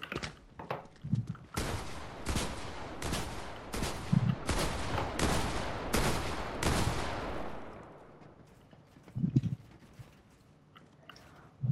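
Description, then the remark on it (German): Video game gunfire from a player who misses every shot: a loud, steady volley of about a dozen sharp shots in quick succession, followed by a fading echoing tail and a few faint thuds, with no talking. “Ja, okay, ich traf halt keinen Schuss.”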